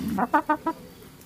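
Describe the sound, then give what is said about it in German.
A chicken clucks in a quick run of four short, nasal pulses, fairly loud, with no one talking. “Und jeder, der sagt, ein Huhn, das hat nicht viel zu tun, hat einfach keine Ahnung.”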